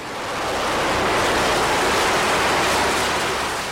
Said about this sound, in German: Immer, wenn ich das Wort Stahlkocher gehört habe, habe ich mich gefragt, wie machen die das wohl? So hört es sich jedenfalls an, wenn die kochende Stahlsuppe aus dem Hochofen fließt.